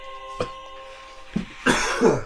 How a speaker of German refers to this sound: Und ich muss jetzt husten, deswegen musst es du sagen.